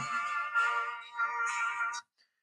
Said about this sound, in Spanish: que empieza con unos acordes muy interesantes y oscuros como aquí están escuchando.